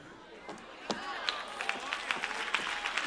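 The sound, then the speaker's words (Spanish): Thin, scattered applause from an audience: a handful of sharp, uneven claps over a soft hiss, never building into a full ovation. “si ese es el aplauso, dáselo bien.”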